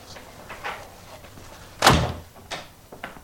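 household object, door being shut

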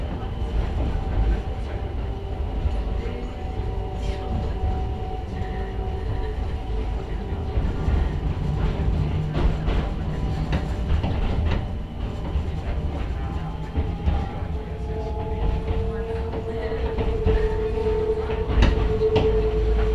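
vehicle, mountain railway train running

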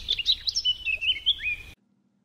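bird, bird chirping sound effect

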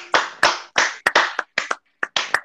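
crowd, clapping

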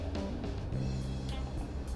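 vehicle, car interior noise

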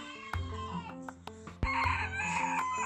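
bird, rooster crowing

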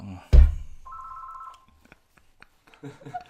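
household object, telephone ringing

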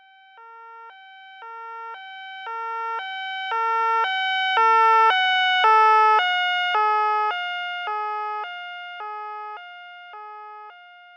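vehicle, emergency vehicle siren

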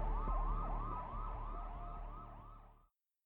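vehicle, distant emergency vehicle sirens

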